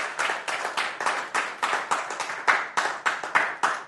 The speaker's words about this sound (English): Let's clap our hands for the word of God. Thank you, Jesus, for your word.